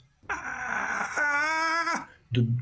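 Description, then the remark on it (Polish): A voice imitates a shrill, rising, approaching wail, held loud for nearly two seconds before cutting off, followed by a short low vocal burst. “taki jakby rosnący, piskliwy głos.”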